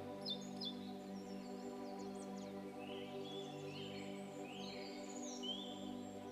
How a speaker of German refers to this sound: Vogelgezwitscher dringt an dein Ohr. Was das wohl für ein Vogel ist, der da sein Lied anstimmt?